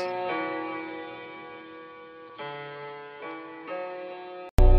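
Hip-hop intro music plays on its own: sustained synth chords shift every second or so, then a sudden loud hit lands right at the end.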